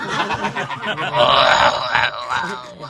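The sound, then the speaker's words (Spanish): A person imitates a tiger's growl with a sustained, rough, raspy vocal roar lasting about three seconds, swelling in the middle and fading at the end. “Ah, Sigue imitando un tigre.”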